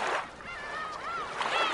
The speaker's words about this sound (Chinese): 这是大海的声音